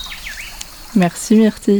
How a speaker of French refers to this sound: J'entends différents bruits le chant des oiseaux, le craquement des feuilles.